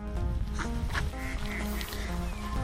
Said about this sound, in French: Oh là là, il y a les gros canards.